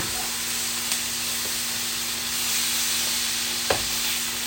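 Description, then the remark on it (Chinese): Noodles being boiled until half-cooked in a stir-fry wok give off a steady, even hiss that runs throughout, broken by a couple of brief sharp clicks, with a faint low hum underneath and no talking. “因为这个我这个炒菜锅不是那个我主要煮面的那个锅，”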